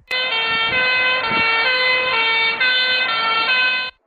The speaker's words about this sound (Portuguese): É muito fácil perceber o efeito Doppler no nosso dia a dia com ondas sonoras. Então, quando uma ambulância está se aproximando da gente, a gente ouve aquele som bem mais agudo, parece que o som está numa frequência maior.